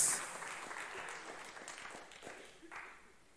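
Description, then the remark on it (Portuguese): An audience at a church service applauds together in praise of the name of the Lord Jesus, a steady wash of many hands clapping at moderate volume that slowly fades toward the end, with no voices over it. “Aplauda o nome do Senhor Jesus.”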